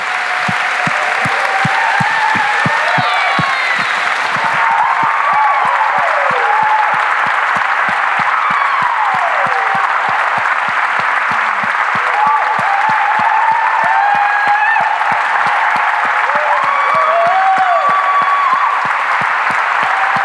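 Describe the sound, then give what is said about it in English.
A standing audience claps steadily and loudly for about twenty seconds, a dense, sustained wash of hand claps with scattered cheers and whoops rising above it. “So, um, would you stand with me as we applaud these guys for all they are and what they've done, just as a thank you.”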